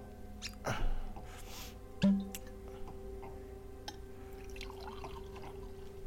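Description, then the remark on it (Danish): Red wine, a '38 vintage, is poured into two glasses with a soft trickle, broken by a couple of light glassy knocks, over a low steady hum with no one talking. “Ah, find to glas her, præst, så smager vi 38'eren sammen.”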